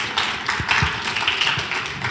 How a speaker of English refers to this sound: It's only going to get a few claps, I know. I'm already prepared, and that's all right.